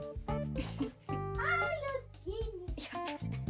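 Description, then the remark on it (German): A domestic cat lying beside the speakers meows repeatedly, a series of drawn-out, wavering cries with brief pauses between them, fairly loud and clear with no talking over them. “Ja, die liegt gerade eben sozusagen neben uns.”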